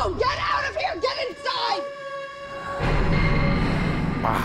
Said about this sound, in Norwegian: Den skrikingen til Jamie Lee Curtis som vi husker fra Fishcall Wanda.